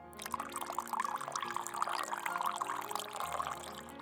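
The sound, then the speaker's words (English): A drink is poured steadily into a glass for about four seconds, a continuous bright splashing trickle with a rising, gurgling tone as the glass fills. “I didn't. There's no room left in the glass.”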